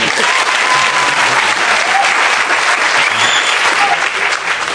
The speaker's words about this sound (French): L'émission se déroule en public. En voulez-vous une preuve Il me suffit de demander au public présent de se manifester. Applaudissez, s'il vous plaît.